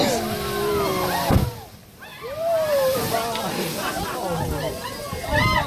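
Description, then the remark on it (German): Water sloshes against a whale-watching cruise boat full of tourists circling in search of whales, while the crowd chatters and exclaims over one another, their voices lively, with a steady hiss of wind and waves underneath. “So klingt Whale Watching.”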